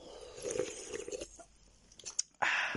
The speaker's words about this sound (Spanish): Pero hoy me he comprado, como es un día especial, por lo que estoy anunciando, me he comprado un poquito de Monster, así que le voy a dar un sorbito.